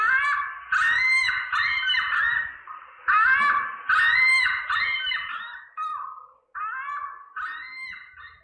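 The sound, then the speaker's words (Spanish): An ostrich calling in a rapid series of loud, nasal honking cries, uninterrupted, with a brief pause near the end before a few more harsh honks. “Y este es el sonido de un avestruz.”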